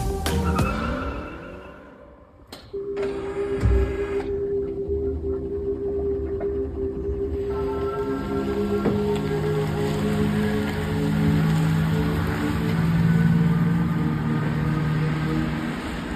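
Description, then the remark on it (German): An electric car drives past with a soft, steady whirring hum and a faint high motor whine, over a constant wash of road or rain-like noise, with no voices. “Elektro, Surren, recht unspektakulär.”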